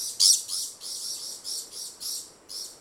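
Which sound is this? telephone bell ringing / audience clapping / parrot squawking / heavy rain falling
parrot squawking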